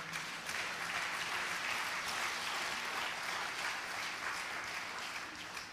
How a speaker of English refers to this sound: Oh, you can clap your hands for that.